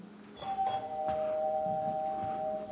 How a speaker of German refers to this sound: Zum Beispiel, es klingelt an der Tür.